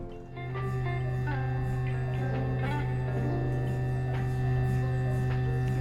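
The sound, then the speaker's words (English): A steady, loud electrical hum from a large MRI machine powering up, with a deep constant drone and faint tonal whines and clicks layered above, continuing without pause and no one talking. “And we're gonna get this thing warmed up.”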